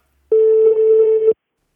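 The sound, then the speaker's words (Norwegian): A single steady electronic telephone ringback tone, about one second long, clear and fairly loud, with no voices over it, the kind heard while waiting for a call to connect. “Eh, ringer du noen? Nei. Jeg hører jo ringelyder.”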